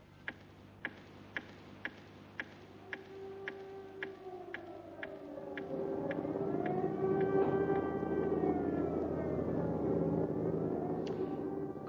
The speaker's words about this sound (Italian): Queste frasi concitate rimbalzano ai nostri microfoni da Radio Berlino che lancia l'allarme per l'imminenza di un attacco aereo sulla capitale tedesca.